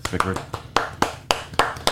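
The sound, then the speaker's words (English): A handful of sharp hand claps ring out at an uneven pace, fairly loud, welcoming a guest, with a brief voice murmuring in the background. “Oh wait, do I clap for myself?”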